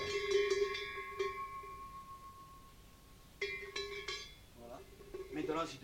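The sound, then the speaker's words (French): Several bells clang together for a Basque charivari, called Sintsaroshka, in irregular bursts, their bright, sustained metallic tones ringing and overlapping, pausing briefly before another clattering round of ringing starts up. “Pour le charivari, il y a un nom basque qu'on appelle ce nom Sintsaroshka, ce qui veut dire euh, faire ce charivari avec les cloches, c'est-à-dire que Sinsari » veut signifier le nom de la cloche.”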